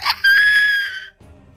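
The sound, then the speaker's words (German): A loud, piercing high-pitched scream holds a steady shrill pitch for nearly a second, then cuts off, leaving a faint low rumble behind. “Ähm, ihr, hört ähm, auch diese Schreie, ihr hört auch diese Schreie wieder.”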